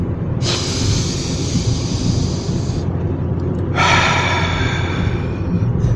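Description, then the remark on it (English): A long, deep inhale through the nose followed by a slower, airy exhale through the mouth, the second of three big breaths, fairly loud, with a low steady rumble underneath and no talking. “Breath number two.”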